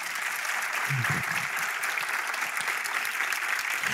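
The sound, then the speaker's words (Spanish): Steady, dense applause from a Spanish-speaking audience fills the whole clip, a continuous wash of many hands clapping at an even loudness, with a few faint low vocal bursts underneath. “Dale un fuerte aplauso al rey, por favor.”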